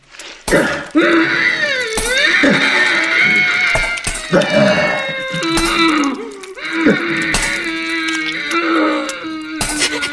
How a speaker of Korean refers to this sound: 포박된 남자의 이마에서 핏줄기가 솟구쳤다. 그리고 길고 긴 절규가 이어졌다. 핏줄기가 약해질수록 남자의 소리도 작아졌다.